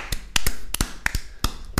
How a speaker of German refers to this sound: Ich finde, da kann man einfach mal klatschen, oder? Ja, genau. Ja, klatschen.